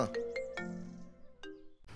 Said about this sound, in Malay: Eh, Siapa pula telefon ni?